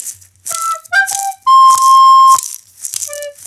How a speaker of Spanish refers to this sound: Y en las maracas, yo.